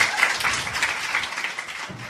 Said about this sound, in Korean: 박현민 교수 박수로 맞이해주세요.